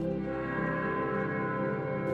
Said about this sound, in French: Puisque cette cloche résonnera enfin demain dans notre ciel